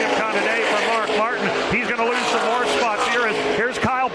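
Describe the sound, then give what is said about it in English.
Loud, continuous race-car engines roar past at speed as the cars come to the start-finish line, with Terry Labonte going by. Their pitch rises and falls as they pass, with a voice talking over the steady engine noise. “He's losing another position now as they come to the start finish line. Here's Terry Labonte going by.”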